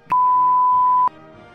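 A single steady censor beep, a pure mid-high tone held for about a second with an abrupt start and stop, cutting over a quieter background.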